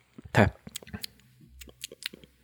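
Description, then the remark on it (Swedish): Wet mouth sounds of someone chewing, with a loud smack near the start followed by a string of softer clicks and squelches at an irregular pace. “Gud, vad jag smaskar mycket.”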